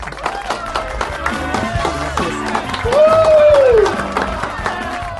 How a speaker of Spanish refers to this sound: Así que los invitamos para que se peguen de una vez por todas y para que recibamos con un fuerte aplauso a nuestra queridísima invitada esta noche, Diana Uribe.